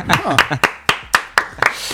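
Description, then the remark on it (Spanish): Steady, rhythmic hand clapping in a studio, about eight sharp claps a quarter-second apart, with voices murmuring underneath during the first half. “Sí, aplausos.”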